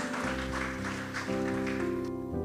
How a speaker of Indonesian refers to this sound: Yang setuju juga berikan tepuk tangan.